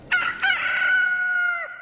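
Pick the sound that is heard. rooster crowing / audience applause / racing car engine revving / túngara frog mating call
rooster crowing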